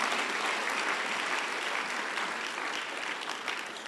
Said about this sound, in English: Clap unto the Lord.